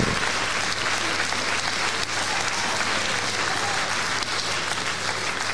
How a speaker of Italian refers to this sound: Non troppo caldo questo applauso, eh?